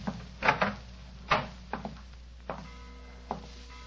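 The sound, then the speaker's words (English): A bedroom door being opened, with a series of sharp wooden clunks and rattles from the handle and frame spaced irregularly over a few seconds, and no voices. “Where does this door lead to?”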